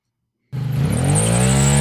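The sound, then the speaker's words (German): After a brief silence, a motorcycle engine suddenly roars to life and revs loudly at the Mecklenburg motorcycle meeting in Malchin, its throaty pitch climbing and holding steady with no voices. “Ein Bikerspielplatz. Es riecht nach Gummi, Leder und Benzin. Mecklenburger Motorradtreffen in Malchin.”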